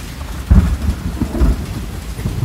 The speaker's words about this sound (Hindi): बारिश तेज़ हो गई थी बाहर